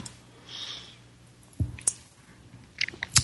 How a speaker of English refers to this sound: I'm going to take a sip of my kombucha tea here.